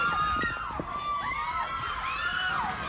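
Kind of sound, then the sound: crowd, crowd screaming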